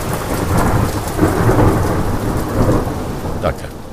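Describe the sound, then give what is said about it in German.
Heavy rain pours steadily while deep thunder rumbles low and continuous underneath, with a sharper crack near the end; no one speaks. “So, und jetzt kann es auch anfangen zu regnen.”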